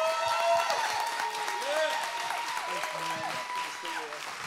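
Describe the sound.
A standing audience at a morning church service applauds, steady dense clapping from many hands with scattered cheers and voices rising over the sustained applause throughout.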